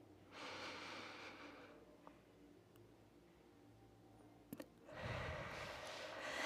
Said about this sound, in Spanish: Para lo cual vamos a hacer juntos todos una respiración profunda y larga.